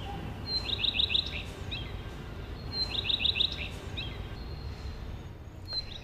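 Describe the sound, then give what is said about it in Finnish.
A common redstart sings two short, high phrases, each a clear opening note followed by quick twittering notes, with the start of a third at the end, over a steady low background hiss. “Siinä lauloi leppälintu.”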